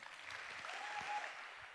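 Audience applause, a steady dense patter of many hands clapping at an even, moderate loudness throughout, with a faint brief tone rising above the noise near the middle.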